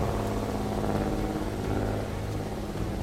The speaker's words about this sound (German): Ihr bemerkt, wie langsam der Seegang ein wenig unruhiger wird und wie eure Freunde den Gashebel von dem kleinen motorbetriebenen Schiffchen ein ganzes Stück nach vorn schieben.